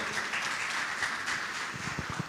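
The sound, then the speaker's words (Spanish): An audience applauds steadily, a dense wash of many hands clapping at moderate volume without pause and with no voices over it, a strong round of applause for the television viewers of Canal 3 in Mendoza, Argentina. “Que el Señor les bendiga y nosotros que estamos presentes, ¿por qué no le damos un fuerte aplauso a esas personas que están del otro lado de la pantalla?”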